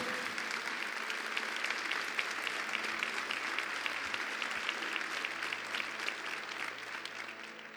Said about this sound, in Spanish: Vamos a dar un aplauso fuerte al Señor. Dios lo va a hacer.